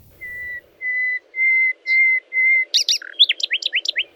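A nightingale sings alone: five long, pure whistled notes that swell in loudness, then a quick burst of sharp chirps and rippling trills.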